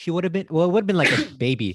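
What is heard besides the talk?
cough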